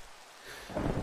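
Steady rain hiss fills the short stretch, and a deep roll of thunder swells in near the end, growing louder. No voices are present.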